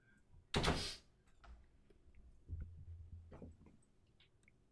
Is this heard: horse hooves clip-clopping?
no